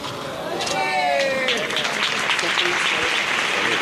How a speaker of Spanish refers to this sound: El aplauso de toda la plaza para el saetero.